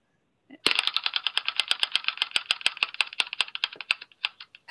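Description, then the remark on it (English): A prize wheel spins with a quick, steady run of sharp clicks that rattle along for several seconds and gradually slow toward the end, fairly loud with no talking. “Let's spin our magical wheel of choice here.”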